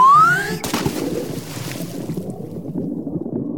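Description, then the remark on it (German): A short rising whistle-like tone gives way to a sudden splash of a yelping tiger leaping into a brook, followed by several seconds of steady churning, bubbling water noise. No one speaks. “Er jaulte und sprang in den Bach, um den wütenden Insekten zu entkommen.”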